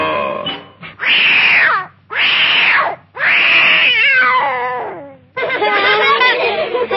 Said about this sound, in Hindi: और टोकरी में एक बिल्ली का बच्चा